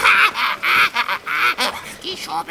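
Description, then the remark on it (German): Parrots squawk loudly in a rapid run of harsh, raspy calls, about half a dozen bursts in quick succession with no talking underneath. “Habt ihr das gehört? So ein Papageien-Rap würde ich mir gerne mal reinziehen.”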